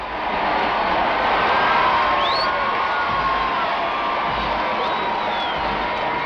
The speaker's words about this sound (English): The same golden fairy tale coach that carried her to the coronation in June 1953, Her Majesty and Prince Philip, to the thunderous cheers of hundreds of thousands of her subjects lining the room.